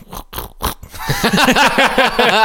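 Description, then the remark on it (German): A person imitates a pig, starting with a few breathy, snorting grunts and then moving into a quick run of loud, rhythmic voiced oinks. “Geräusch, was macht das für Geräusch? Ja, Grunzen.”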